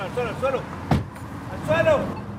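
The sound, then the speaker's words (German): A single sharp thump of a car door slamming as a border police officer brakes an SUV and jumps out with two colleagues, set against a low engine rumble, with raised voices shouting briefly in Spanish before and after it. “bremst den Geländewagen ab, springt mit zwei Kollegen aus dem Auto und ruft auf Spanisch, auf den Boden, auf den Boden.”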